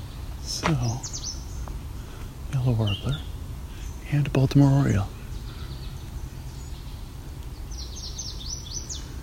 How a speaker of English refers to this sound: That's the yellow warbler.